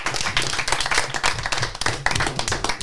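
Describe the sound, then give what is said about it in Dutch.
A small group claps steadily and briskly for a few seconds, the dense patter of hands fairly loud, with no talking over it. “Ja, applaus.”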